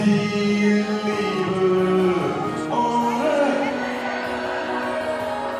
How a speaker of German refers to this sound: Hunderte Feiernde singen jetzt zusammen